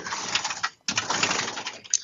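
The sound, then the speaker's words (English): Rummaging through a drawer where marijuana is kept: two stretches of busy rustling and clattering, split by a short pause, with a small sharp knock near the end. No talking. “Uh, I'm looking in the weed drawer right now. That's that sound”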